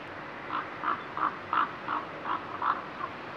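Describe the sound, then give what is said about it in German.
A common raven gives a quick, evenly spaced run of about eight short, deep croaking calls at moderate volume over a faint hissing background, with no voices. “Die Kolkraben mit ihrem riesigen Schnabel, die größten von allen Rabenvögeln, haben eine besonders tiefe Stimme.”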